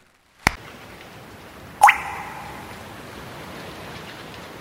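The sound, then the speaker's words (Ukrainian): A short transition bumper: a sharp click out of silence, then a bright rising plop that rings briefly and fades into a steady soft hiss. No one speaks. “Пропоную її зняти, а для вас буде перебивка.”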